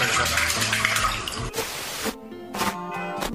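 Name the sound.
water splashing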